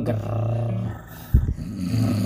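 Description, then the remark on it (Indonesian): A voice imitates loud snoring with a low, rumbling, drawn-out rasp, broken midway by a short gruff burst before the rattling drone resumes, fairly loud. “tapi bangsat tuh orang-orang yang ngorok tuh bangsat tuh gue sering tuh tidur samping orang ngorok kayak huh?”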